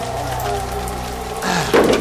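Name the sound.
rain falling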